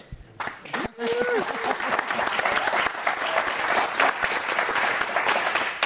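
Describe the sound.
A crowd of queer trans API people at a program breaks into sustained applause, clapping again after welcoming a speaker: dense rapid clapping that swells after a brief start and holds steady and loud for several seconds, with a few cheers and voices mixed in.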